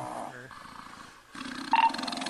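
Rough, buzzing snoring, with two drawn-out rasping breaths separated by a short lull. The second one swells louder and has a harsh, growly edge. No one speaks.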